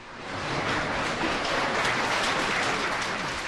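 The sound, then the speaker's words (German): Sustained applause from the guests of a live talk show as opposition politicians storm the studio during the broadcast, a dense crackle of many hands clapping that swells in over the first half second and holds steady and loud throughout, with no talking. “Sie stürmen das Studio während der laufenden Sendung unter dem Applaus der Gäste.”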